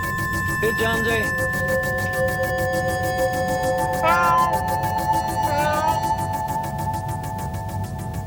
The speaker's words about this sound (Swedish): Here, kitty, kitty, kitty, kitty, kitty, kitty. Meow. Here, Jonesy.